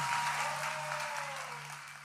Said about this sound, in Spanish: ¿Cuánto le pueden dar un aplauso bien fuerte al Señor?